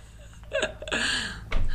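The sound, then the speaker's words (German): A breast milk pump whirs and squeaks, its motor giving off a couple of rising and falling whiny tones that end in a louder mechanical burst. “Das war sozusagen eine, äh, eine Muttermilch-Ausdrück-Kontamination.”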